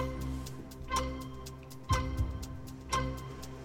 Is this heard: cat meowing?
no